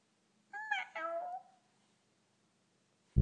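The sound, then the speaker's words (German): A cat meows once, a drawn-out two-part call with a rising and falling pitch. Then a pause of near silence, and a sudden loud low thump cuts in at the very end. “Und wenn mich jemand fragt, wer ich bin, dann sage ich, miau.”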